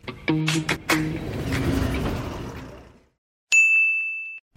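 A single bright phone text message notification ding, a bank's SMS banking service fee message, rings out clearly after a brief silence, sustaining for under a second, preceded by a few seconds of rumbling traffic and vehicle noise.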